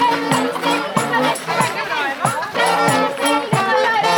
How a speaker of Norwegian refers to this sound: Folka, folka hopper og jubler og eh, De er så glad, jeg vet ikke.